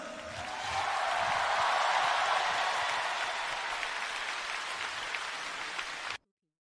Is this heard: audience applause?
yes